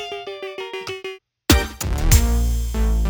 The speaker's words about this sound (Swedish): inget beat är komplett utan en stab. Det måste man alltid ha. Så att jag har gjort en stab också. Den låter så här.